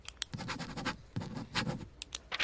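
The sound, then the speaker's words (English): A pen scratches across paper in a few quick strokes with brief pauses between them as someone signs up to join the Marines. No one speaks. “Where do I sign? Right here, son.”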